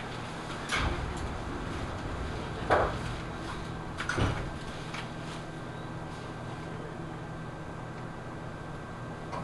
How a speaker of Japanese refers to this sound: 長瀞口、発車いたします。ドアが閉まります。ご注意ください。